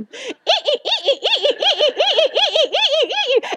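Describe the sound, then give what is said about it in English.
A voice imitates the creaking springs of a Wonder Horse spring rocking horse with a quick, steady run of high, squeaky rising-and-falling squeals, repeated about fifteen times, fairly loud. “I'm like, I know everyone who's ever had a Wonder Horse knows what that sound is.”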